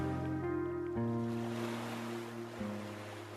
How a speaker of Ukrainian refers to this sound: Я сиджу навпочіпки, перетискаючись спиною до борта, слухаю, як об нього б'ються хвилі, і вивчаю географію берега.